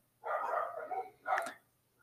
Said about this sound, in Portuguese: Cachorro latindo aqui no fundo.